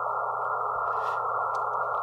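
A steady electronic test tone from a signal generator hums continuously at constant loudness for the whole two seconds, with no speech and only faint background clicks.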